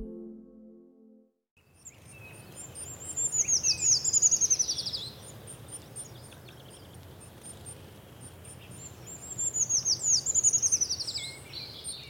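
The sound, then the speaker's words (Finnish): Song of a treecreeper, a small brown and white bird: two short, very high, thin trilling phrases that slide downward, separated by several seconds, over a steady low background rumble with no talking. “Puukiipi on pieni ruskeanvalkoinen lintu, jonka tunnistaa ja johon kiinnittää huomioni käytöksen perusteella.”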